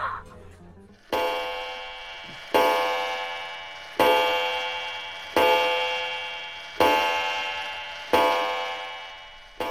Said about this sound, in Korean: 때마침 와인바 벽에 걸린 오래된 괴종벽 시계가 12시를 알린다.